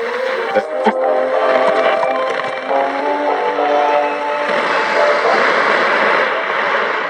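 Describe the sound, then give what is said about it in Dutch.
A radio being switched on crackles to life, a steady, fairly loud hiss of static with faint wavering tones and brief clicks near the start, continuing unbroken for several seconds, heard from a salon behind an open door. “De deur van het salon staat open en daarachter hoort ze het krakende geluid van een radio die wordt aangezet.”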